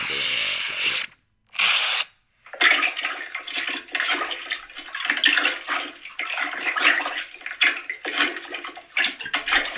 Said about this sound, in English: it sounds like somebody's got their head down the toilet now.